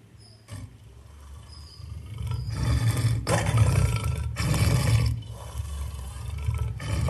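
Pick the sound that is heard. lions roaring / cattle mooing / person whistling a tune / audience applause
lions roaring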